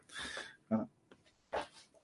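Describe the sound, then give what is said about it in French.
A cat snoring softly: three breathy, rasping breaths about a second apart, each a brief hissy swell against near silence. “On entend la ronflette du chat, mais oui, mais oui, c'est ça, c'est le chat ronfle pour de vrai.”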